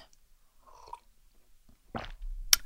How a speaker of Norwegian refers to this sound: Jeg kjente at jeg trengte å ta meg en liten slurk med vann.